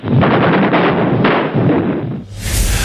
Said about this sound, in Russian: В неудержимом порыве славные пехотинцы и гвардейцы прорвались на противоположный берег, следуя за огневым валом артиллерии.